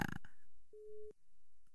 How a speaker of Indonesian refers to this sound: Kita langsung saja sekarang menyambungkan via telepon dengan bintang tamu kita yang pertama.